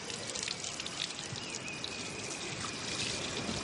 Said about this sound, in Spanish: Abre el grifo del lavabo que tiene en su cuarto y se queda contemplando cómo corre el agua.